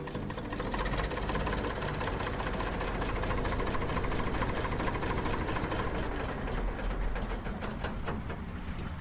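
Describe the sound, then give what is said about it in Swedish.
An old BM Volvo Boxer tractor with four-wheel drive, chassis number 1002, in Strövelstorp in northwestern Skåne, Sweden, runs steadily, its loud, even chugging and rapid mechanical knocking continuing without a break, with no voices over it. “Det går ju fint det här.”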